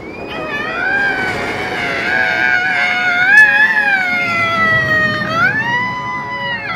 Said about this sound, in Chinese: 云霄飞车呼啸而过，伴随着车上人们的尖叫声。